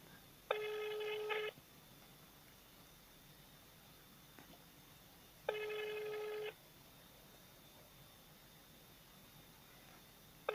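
A telephone ringback tone sounds in repeated bursts, about one second on and four seconds off, over a steady low hiss of line noise, with no one speaking.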